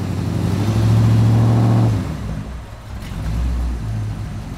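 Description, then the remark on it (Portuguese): A car engine revs loudly for a couple of seconds, then drops off as the car is driven away, with a lower engine rumble continuing and swelling slightly afterward. “nisso que ele fala isso, o Bruno só sai com o carro”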